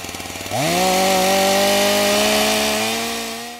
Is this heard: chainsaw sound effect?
yes